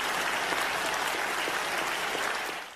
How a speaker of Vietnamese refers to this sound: Vỗ tay, vỗ tay, vỗ tay.